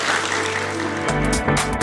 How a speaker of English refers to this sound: Thank you so much. Thank you so much for your time. Round of applause for our students.